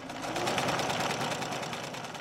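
A sewing machine, used by a costume maker to sew fabric costumes for stilt walkers, runs steadily, its needle producing a fast, even mechanical chatter with a constant whirring hum, loud and uninterrupted throughout with no voices.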